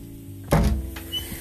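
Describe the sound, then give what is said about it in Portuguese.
A door opens with a single solid clunk of the latch and a brief rumbling swing that fades within half a second, followed by a faint knock. Nobody speaks. “Assim, Emengarda, decidida, abriu a porta.”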